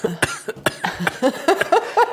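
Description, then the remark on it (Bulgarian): A person who is ill has a loud fit of coughing: a rapid string of harsh, throaty coughs, about eight or nine in two seconds, with rough voiced gasps between them and no speech. “Извинявай, че кашлям, аз просто съм болен”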